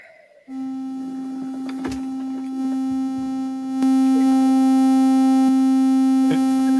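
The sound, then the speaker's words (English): A synthesizer triangle wave drones on one steady, low-mid pitch after a brief quiet start, stepping up in loudness partway through, with a few faint clicks and no talking. “demo the triangle better than me.”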